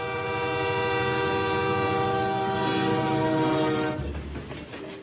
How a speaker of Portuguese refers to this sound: Já estou de malas prontas porque o trem da imaginação já está apitando.